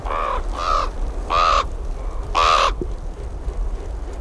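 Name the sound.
raven calling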